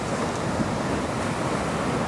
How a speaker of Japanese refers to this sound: リラックスできたら波の音に耳を傾けてみましょう